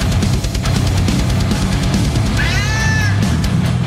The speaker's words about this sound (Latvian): Kaķa metāls, beidzot. Tik tālu esam tikuši.